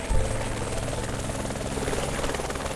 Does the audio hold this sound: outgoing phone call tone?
no